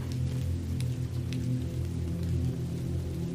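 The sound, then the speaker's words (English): Steady rain patters and taps softly on the prairie over a constant low droning hum, with occasional sharper drops standing out, and no voices. “In tandem with the whispers of winds across the grasslands, and with the tapping of the rain, the prairie is a place to lull and hypnotize you into a state of peace and rest.”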